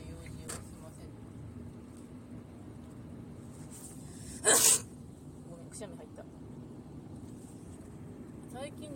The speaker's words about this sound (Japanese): くしゃみ多いんだけど、まあ、風邪のウイルスが鼻から出てくれるからありがとうぐらいなんだけど多分風邪のはずなんだけどなうん